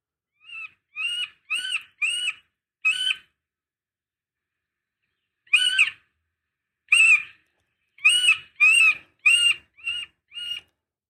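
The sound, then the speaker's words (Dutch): A middle spotted woodpecker's nasal, squeaky call notes, given in short evenly spaced series with a pause between, clear with no other sounds. “Dan laat ik eerst die van de middelste bonte specht luisteren.”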